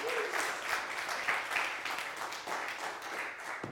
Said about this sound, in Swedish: Eh, han kommer in här Ge honom en applåd.